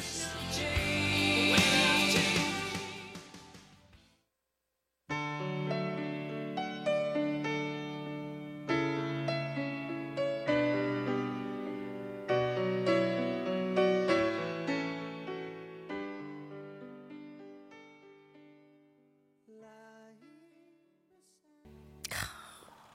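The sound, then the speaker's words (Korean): A rock power ballad opens with slow, sustained keyboard chords ringing out in a steady, gentle progression, after a brief burst of breathy noise and a short pause. “자, 미국의 음악 전문 채널 VH1에서는 역사상 가장 위대한 파워 발라드로 꼽기도 했던 이 노래 두 팔 벌려서 아니 두 귀를 열어서 들어보겠습니다.”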